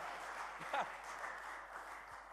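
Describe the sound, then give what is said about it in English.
An audience claps hands to the Lord in a steady, dense wash of applause, with a brief vocal sound rising out of the clapping partway through. “Yes, clap your hands to the Lord.”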